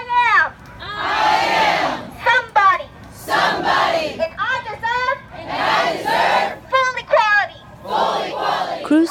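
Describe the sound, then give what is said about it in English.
A large crowd of young immigrants chants in loud, rhythmic unison at a rally before the Capitol in Washington, D.C., in support of the DREAM Act, voices rising and falling in repeated bursts of shouted phrases, energetic. “hearing and being a part of chants and protests like this one made her realize she could not live her life in fear.”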